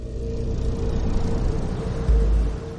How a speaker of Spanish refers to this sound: Un coche avanza por un camino bajo el cielo amarillento.